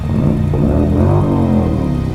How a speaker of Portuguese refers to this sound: E nesse ponto, o barulho já invadia nossa casa de forma violenta. Um barulho de motor que entrava por todos os lados, como se fosse uma gangue de motoqueiros rondando a pequena residência para nos intimidar.